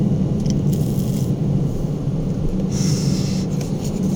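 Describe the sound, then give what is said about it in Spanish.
A ballpoint pen is handled, with soft clicking and scraping over a steady low hum, small taps scattered irregularly throughout. “¿Qué, tanto está sonando acá? Mi teléfono, una pluma, un bolígrafo, mi vapor, mi vapor no, no suena.”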